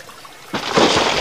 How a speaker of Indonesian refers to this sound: Air yang mengalir semakin banyak dari bukit itu membasahi kakinya.